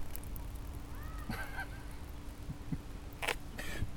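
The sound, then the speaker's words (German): A hand water pump at a playground being worked hard, its handle giving a few squeaky, honk-like squeals between short clanking and gushing bursts as only a little water comes out, with no one talking. “Hört mal hin, wie, wie wenig Wasser da rauskommt bei dieser Anstrengung.”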